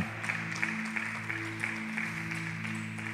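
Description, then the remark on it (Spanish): An audience applauds the Lord steadily for about three seconds, a dense patter of clapping over a sustained low organ-like hum, fairly quiet with no voices standing out. “¿Cuántos pueden darle ese aplauso al Señor?”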